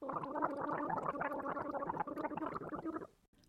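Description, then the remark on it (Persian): A continuous bout of gargling lasting about three seconds, bubbling and rattling steadily before cutting off abruptly into near silence. “سخنی با شنوندگان صدای قرقره”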